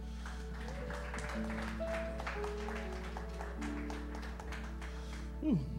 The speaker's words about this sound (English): Thank you, band. Can we just give a round of applause for them?